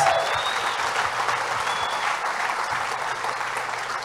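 A crowd claps steadily in a large room, a dense, sustained wash of applause that stays loud and even for several seconds with no talking over it.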